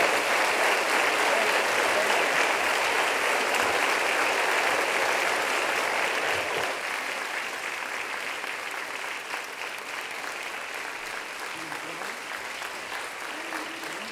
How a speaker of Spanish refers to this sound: Póngase de pie, denle un aplauso. Vengan todos acá arriba. No deje de aplaudir, no deje de aplaudir, déselo fuerte. Y vamos a celebrar al Señor.